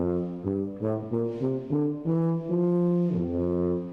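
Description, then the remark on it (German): A huge bellows-like blowing sound, deep and reedy, fairly loud, sustained tones shifting pitch in steady steps like a slow wheezing melody, with no voices. “Klingt wie ein Riesenblasebalg.”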